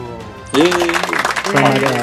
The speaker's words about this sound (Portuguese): Palmas